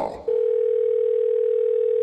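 A steady, unbroken telephone dial tone of an outgoing call to an electrician starts after a brief burst of handling noise and holds at an even pitch and loudness for about two seconds, with no talking.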